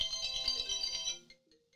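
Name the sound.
mobile phone ringtone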